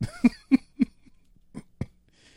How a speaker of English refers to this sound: that coughing made me sweat.